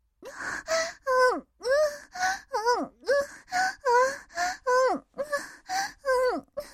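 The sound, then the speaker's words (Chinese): A woman moans with pleasure in a steady run of about a dozen short, high-pitched vocal bursts, each sliding up and down in pitch, fairly loud with brief pauses between. “随着他一声愉悦的喊声，呻吟喊叫声突然高了起来，也更加摄人心魄。”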